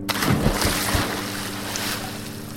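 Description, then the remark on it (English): A few splashes as two divers with mouthpieces jump into open ocean water after a countdown, with churning waves and a steady low motor hum beneath, rough wind noise throughout and no voices. “I pull out my other hand and I do a countdown from six, five, four, three, two, and then I don't say one and I point my one finger and then I pop the mouthpiece on and we jump into the water.”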